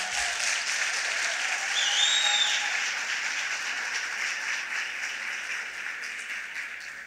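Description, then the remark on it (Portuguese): A church audience applauds the Lord steadily, a dense, continuous wash of many hands clapping that stays loud throughout, with a faint whistle rising briefly above the crowd near the start. “Pode aplaudir o Senhor.”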